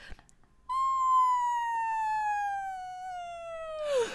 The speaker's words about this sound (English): it's the Looney Tunes sound effect of the of the whistle before the splat when a character falls from a great height